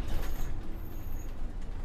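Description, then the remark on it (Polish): Heavy trucks rumble with a deep, steady engine drone, slowing as they come to a halt, with a faint hiss of air brakes and no voices. “Po chwili ciężarówki się zatrzymały.”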